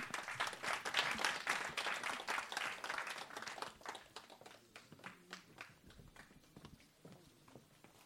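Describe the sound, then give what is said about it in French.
An audience applauds a woman coming up to give a text reading, with dense, steady clapping that holds strong for a few seconds, then thins out into scattered, individual claps before fading. “On peut l'applaudir, elle va nous rejoindre.”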